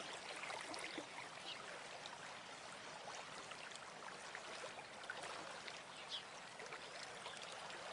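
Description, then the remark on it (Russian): A clear river babbles steadily over pebbles along a pebble shore, flowing through dense forests, a continuous bright rush of water with small trickles and splashes, fairly loud, with no voices. “Вы стоите на галечном берегу прозрачной реки. Сверкая, она течет сквозь густые плотные леса, что затеняет воздух к своей спокойной зелени.”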